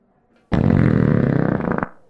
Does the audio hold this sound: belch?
yes